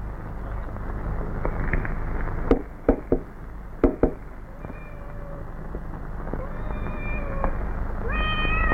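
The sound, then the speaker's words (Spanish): A few hollow knocks, then several thin, high cat meows from inside a coffin rising one after another over a steady low rumble, the mewing growing more frequent toward the end. “Aquí dentro hay gatos.”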